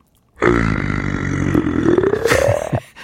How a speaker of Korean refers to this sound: 이 폭력적이지 않고 침착한 프랑켄슈타인 소리입니다.